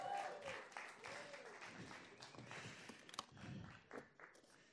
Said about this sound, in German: Jetzt ist der Moment zum Klatschen, weil ich mit einer Hand Eier aufschlagen kann.